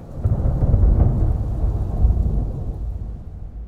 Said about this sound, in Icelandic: Svo var ég bara allt í hennu týnt og rataði ekki heim og svo komu þrumur og eldingar.